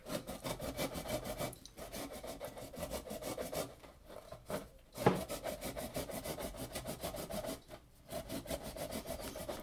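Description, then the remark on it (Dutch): Steady, rhythmic rasping of citrus peel scraped across a box grater that does not grate it easily, fairly loud, with a few brief pauses between runs of quick strokes and no talking. “Hij laat zich niet zo heel enthousiast raspen, deze.”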